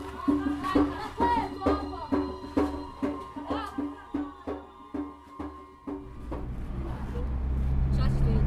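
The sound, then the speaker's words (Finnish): Voices talk over a steady low engine rumble from inside a car riding to a church for a funeral in Elsie's River, Cape Town; the talking fades after a few seconds and the road and engine noise swells louder. “istun … auton kyydissä matkalla kirkkoon”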